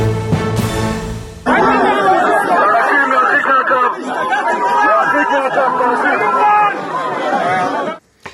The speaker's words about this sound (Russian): Итак, то, что вы слышали, это протестующие в Израиле. 4 ноября они буквально прорывались к дому Нетаньяху. Им удалось, кстати говоря, пересечь два блокпоста. И главное требование, которое они выдвигали, это отставка премьер-министра.